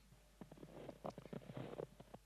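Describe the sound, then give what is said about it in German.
Crunching footsteps in snow, a quick irregular series of soft, gritty crunches that starts after a brief pause and continues steadily for about two seconds, with no voices. “Das Stapfen durch den Schnee.”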